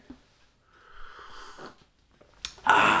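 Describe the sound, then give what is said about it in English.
A deep breath with no talking: a slow, airy inhale lasting about a second, a brief pause, then a louder, rushing exhale that cuts in sharply at the end. “Now, ladies and gentlemen, we're going to put the philosophy down and take a couple of deep breaths.”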